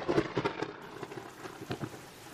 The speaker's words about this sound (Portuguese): Continua chovendo forte lá fora, relampejando.